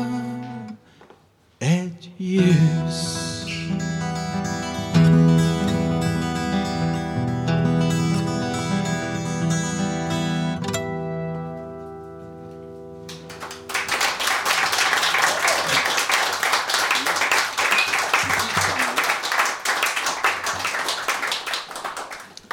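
song performance

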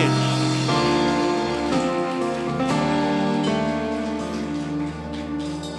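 audience applause

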